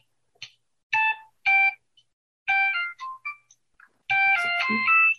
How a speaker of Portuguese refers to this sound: Telefone novíssimo, modelo 2005. Tecnológico, viu? Isso é um Nokia. Isso é um Nokia. Isso é, isso é aquele Nokia. Olha, com esse teclado, meu filho, com esse som,